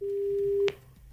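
A steady, single-pitched telephone ringing tone hums on the line for well over half a second, then cuts off with a sharp click, leaving faint line noise.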